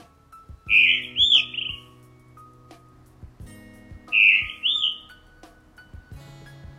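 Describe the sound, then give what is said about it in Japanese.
Two clear, fluting bird phrases of a blue rock thrush song, heard around 4:30 am while still dark, from the roof of a church. Each is a short melodious warble lasting about a second, separated by a pause, with a low steady hum underneath. “はいこんな鳴き声でね、えー、なんかこうさあ起きろよというようなねあの音なんですけども鳴き声なんですけど磯ヒヨドリではないかと思われるんですね”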